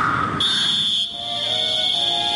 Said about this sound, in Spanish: El pitazo del referí. Eso es la música.